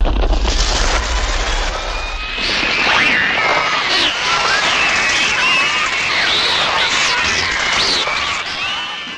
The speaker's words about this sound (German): Ich gebe mal die Vogelgeräusche aus Alfred Hitchcocks Klassiker, Die Vögel.